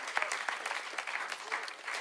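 A burst of audience applause, many hands clapping in a dense, steady patter that holds at a moderate level throughout, with no voices over it.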